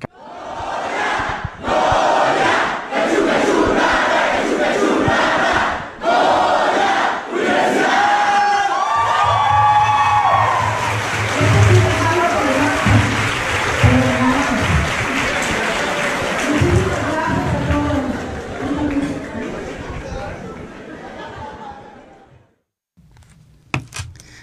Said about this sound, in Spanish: pero era un Goya de la UNAM.